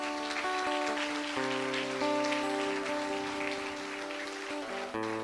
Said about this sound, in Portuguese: Boa, uma salva de palmas a Jesus.